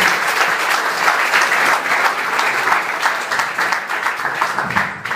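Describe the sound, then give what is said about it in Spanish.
Sustained applause from a crowd, given for the Lord in the afternoon: a dense, steady wash of many hands clapping at once, holding fairly loud for the whole stretch and tapering slightly at the very end. “Dale la aplauso al Señor esta tarde.”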